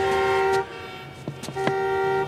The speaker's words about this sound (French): Souvenez-vous de cet épisode de la série Girls de Lena Dunham, dans lequel Ray, le cafetier, décide qu'il n'en peut plus des automobilistes qui klaxonnent dans les bouchons et décide d'essayer d'y faire quelque chose.